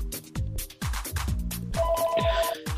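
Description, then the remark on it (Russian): A phone ringtone plays, a bright electronic melody with punchy repeating beats, fairly loud and steady throughout, with no voices over it. “зазвонил телефон”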